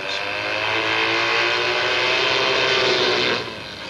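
A Triumph motorcycle engine roars loudly and steadily for over three seconds as Evel Knievel builds speed for a roughly 90-foot jump at Gardena, California. A low droning hum sits beneath a broad rushing noise, then drops off sharply near the end.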